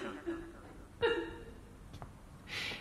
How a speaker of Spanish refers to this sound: Al fondo del pasillo, recibidor, comienza a escucharse el llanto contenido